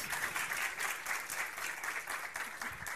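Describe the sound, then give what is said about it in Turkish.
Steady applause from a group, a dense crackle of many hands clapping continuously for the full length without letting up, with no voices standing out. “Alkış hak ediyor.”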